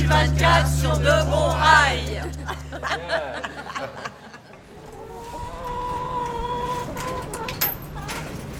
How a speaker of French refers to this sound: Alors je viens de donner à manger aux poules, des petits morceaux de pain et puis mes, déchets de légumes. Je suis allée récupérer deux œufs.